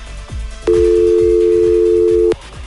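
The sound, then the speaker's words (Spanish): A loud, steady telephone dial tone after the other person hangs up hums without a break for about a second and a half, over a soft, rhythmic thumping background that keeps pulsing before and after it. “ya colgó el teléfono.”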